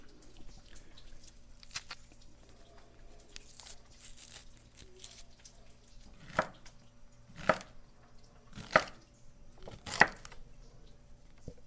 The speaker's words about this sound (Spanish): ahora vamos a empezar a hacer la pacaya, a pelarla y a picarla y ponérselo en ensalada. Le vamos a poner limón y si quieren un poco de tomate, también se lo ponemos.